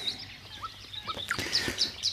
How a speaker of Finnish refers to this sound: Kyllä se aika samalla tavalla etenee toi satakielen ääni.